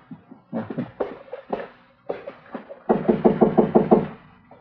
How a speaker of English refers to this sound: All right, go ahead and knock. Let's get clear before the door opens up.